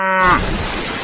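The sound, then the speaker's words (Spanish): A cow lets out a short, loud moo that bends downward in pitch as it falls from the sky onto a barge, then breaks abruptly into a burst of harsh, crashing noise as the barge splits in half, filling the rest of the second. “Cae una vaca desde el cielo sobre la china, parte la barcaza por la mitad.”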